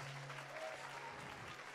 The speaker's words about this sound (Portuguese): Você vai aplaudir, aplauda de, com vontade, aplauda com força. Isso!